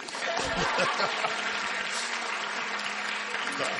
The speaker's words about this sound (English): Come on. Clap for the film stars.